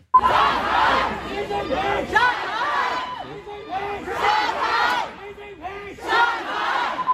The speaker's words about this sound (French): les plus audacieux euh, s'en sont même pris au pouvoir en place en criant Xi Jinping démission, euh, abat le Parti communiste chinois, ce qui est complètement euh, fou en plein cœur de Shanghai.